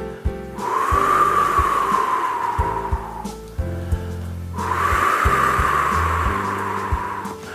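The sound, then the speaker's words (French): As a vocal cool-down exercise, a voice imitates wind rustling through tree leaves, blowing through lips shaped into a small circle, with two long, breathy whooshing blows, each about three seconds and separated by a short pause, over soft, steady low background tones. “Et vous soufflez en imitant le, bruit du vent dans les feuilles des arbres.”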